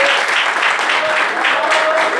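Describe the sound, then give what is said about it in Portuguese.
An audience applauding for Jesus at a church service, a steady, dense wash of clapping from many hands that stays loud and even throughout, with no pauses or talking over it. “Vamos dar uma salva de palmas para Jesus.”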